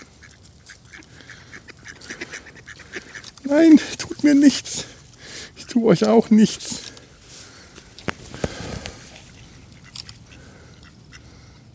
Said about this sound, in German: ich mein Gott, da kommen Enten auf mich zu. Komm, das ist unheimlich. Das ist wirklich unheimlich.